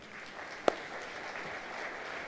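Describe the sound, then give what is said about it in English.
An audience applauds steadily, a dense wash of many hands clapping, with one sharper clap popping out early on. No one speaks. “y'all give a big hand for Mr. Practical coming out here”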